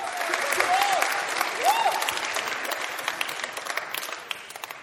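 A crowd claps steadily for several seconds, a dense patter of many hands that gradually thins out, with a couple of brief whoops or cheers rising above it early on.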